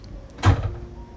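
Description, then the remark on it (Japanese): A café shop door is opened, a short burst of rattling and scraping that fades quickly against a low background hum. No one speaks. “私が恐る恐る店のドアを開けて中に入ると3人は一気に動きを止めこちらを振り返った”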